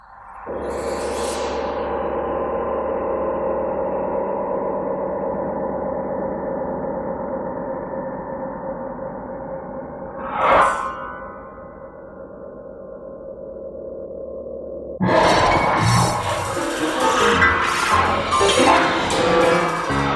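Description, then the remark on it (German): Electronic music, the opening of a recording of an electronic composition first performed in 1960: a low, droning synthetic tone holds steady, broken by a sharp metallic strike near the middle, then a dense, crackling burst of bright noisy sound takes over loudly. “Und die Aufnahme, die hören wir jetzt, den Anfang von Kontakt.”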